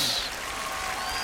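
A short stretch of applause, dense overlapping claps blending into a steady, crackling hiss that holds an even loudness throughout, with no voices on top.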